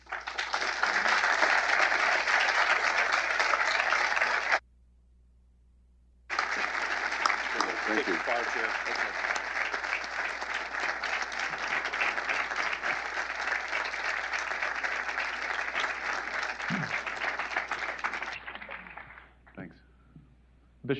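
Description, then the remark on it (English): Loud, sustained applause from a large audience after a lecture, a dense wash of many hands clapping that cuts out briefly, returns just as full, then gradually thins and fades away toward the end. “and I think they liked what you had to say.”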